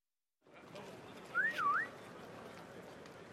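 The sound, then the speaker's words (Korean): Holmes whistles a short two-part phrase outside a house on Pitt Street in London, a quick rising note followed by a dipping, upward-sliding one, clear over a steady background hiss. “홈즈가 휘파람을 불었다.”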